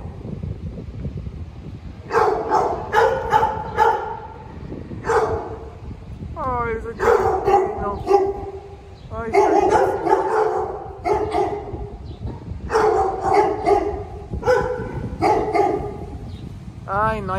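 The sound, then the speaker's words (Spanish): Several dogs at an adoption shelter bark and yip repeatedly in loud, overlapping bursts, with a few higher whining calls mixed in, all echoing over a steady low background rumble. “tantos perritos en adopción, de veras, no compren, adopten, hay muchos que necesitan hogar.”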